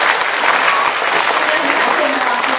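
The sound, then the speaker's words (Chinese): An audience of readers at a lecture breaks into loud, sustained applause for the lecturer, a dense, steady wash of many hands clapping that holds at an even level from start to finish without fading. “那大家把热烈掌声送给彭斌老师”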